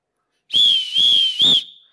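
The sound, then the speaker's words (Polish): A loud, shrill referee's whistle blast trills for over a second with three quick surges before cutting off sharply, heard alone with no talking. “Sędzia gwizdże, wszystkich obudziłem, ok?”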